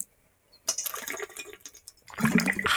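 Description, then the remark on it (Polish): Water splashes and gurgles as it's poured into a glass, in two bursts separated by a brief pause, the second fuller and rising in pitch as the glass fills. “Sponsorem dzisiejszego odcinka jest woda.”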